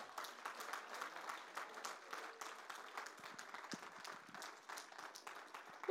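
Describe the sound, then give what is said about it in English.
An audience applauds to cheer a speaker being introduced to close the evening's gathering: a dense, steady patter of many hands clapping at once that holds an even level for about six seconds, with no one speaking over it. “Um, he's going to finish us off tonight, so give him a cheer.”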